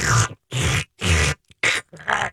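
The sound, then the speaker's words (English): A voice imitates the crunchy cracking of giant scissors cutting through a turkey wing joint, with five gravelly, growl-like bursts in a fairly steady rhythm, the last one ragged and broken up. Fairly loud, with no other talking. “like cracking yeah. noise.”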